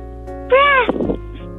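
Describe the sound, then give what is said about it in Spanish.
A child's voice imitates a kitten with a single high, arching meow, followed by a brief rough, throaty trailing sound, set against a steady low background hum. “Es como un, gatito que estaba peleando con el perrito.”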